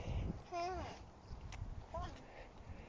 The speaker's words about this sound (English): if you hear the squawks and the laughs of little baby twins in the background